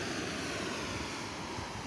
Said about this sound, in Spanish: Se escucha del fondo el mar, que supongo que tú también, Susana, lo tendrás muy cerquita.